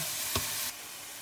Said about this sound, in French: Là, on fait revenir le poulet dans l'huile d'olive. C'est tout bon, ça grésille.